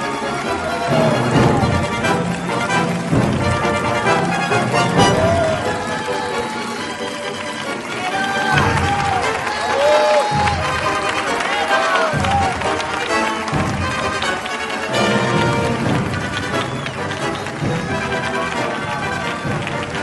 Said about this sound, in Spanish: Antes que nada, quiero agradecer este aplauso tan maravilloso que me ha emocionado hasta las lágrimas.